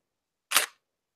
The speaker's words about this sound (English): So here, I'm going to take a picture with this Nikon, and I'm going to hold up to the microphone so you can hear it. So here's here's what sounds like to take a picture.